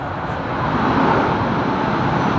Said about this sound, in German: Da. Oha. Ja. Oh, ein A380. Diese Stelle war doch nicht so gut gewählt von uns. Naja, so viele Flugzeuge landen ja gar nicht.